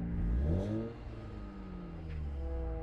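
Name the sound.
cars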